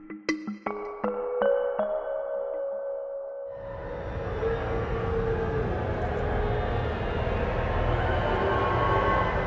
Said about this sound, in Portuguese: Este é o som dos apupos, ouvidos por Boris Johnson à chegada à Catedral de São Paulo, em Londres.